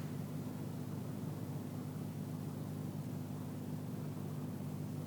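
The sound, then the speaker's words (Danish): Steady, continuous street traffic noise: a constant low engine rumble with a broad hiss on top, fairly quiet and unchanging throughout, with no voices. “Efter 5 sekunders pause, igen bil og gadestøj.”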